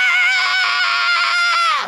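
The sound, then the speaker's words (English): A voice imitates a blood-curdling scream heard from the bottom of a ski mountain: one loud, sustained, shrill cry held for nearly two seconds, its pitch sagging and fading just at the end. “And I hear this blood curdling, ah!”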